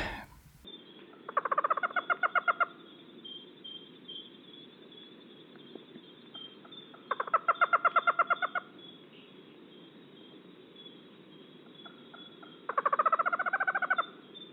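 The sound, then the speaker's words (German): An owl gives three bursts of rapid, stuttering hoots, each lasting about a second, separated by long pauses. The calls are clear over a faint, steady background hiss. “was ist das denn für eine wunderbare Eule?”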